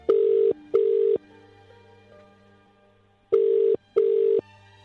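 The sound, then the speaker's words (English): A telephone ringing tone on the line while calling a caller back during a phone-in: two pairs of steady, loud double rings separated by a quiet pause, with a faint low hum between them and no voices. “Let's try again with Tony.”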